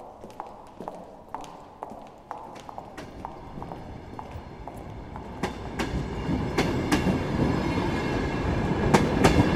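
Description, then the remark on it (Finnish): A train rolls along the rails with a steady rumble that grows louder, punctuated by sharp rhythmic clacks of wheels passing over rail joints. No one speaks. “Kymijoki kyllä jatkaa virtaamistaan ja junia tulee ja menee.”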